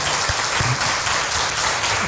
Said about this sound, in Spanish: Muchas, muchas gracias, doctor. Te damos un aplauso con todo cariño al doctor.